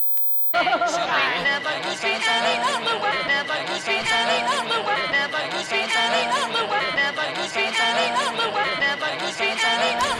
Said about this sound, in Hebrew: עכשיו סתם, מה שאנחנו שומעים עכשיו, הקשקוש הזה, זה היה על, על הרצועה האחרונה באלבום, בתקליט הווייניל. מי שזוכר וייניל, אני זוכר מילדות, שהיה עליו מין רצועה אחרונה שהמחט לא הייתה מפסיקה להסתובב עליה, אלא אם המנגנון היה אוטומטי ומרים את המחט.